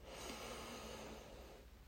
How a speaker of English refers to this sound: Uh, it's like a ancient Chinese practice, I think, where basically what you do is on the on it's like it's a meditation. You breathe in your nose, so do it with me.